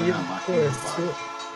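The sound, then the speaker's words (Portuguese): A voice imitates a passing freight train of the MRS railway line, which runs a kilometre and a half from home and is heard every half hour, with a few drawn-out, wavering vocal tones over a steady rumbling hiss, lasting under two seconds. “E a linha da MRS passa a um quilômetro e meio daqui de casa. Eu escuto de meia e meia hora.”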